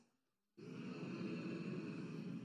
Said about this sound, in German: dann brummst du laut, ungefähr so, mm.